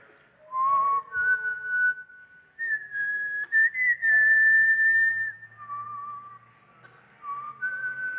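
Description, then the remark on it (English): A single person whistles a slow movie theme melody, the Star Wars Force theme, also called Binary Sunset, with clear sustained notes, one long held tone in the middle, stepping up and down in pitch with no talking. “Who knows what that is called? Yell it out, kids, I know you know. Force theme, also called binary sunset.”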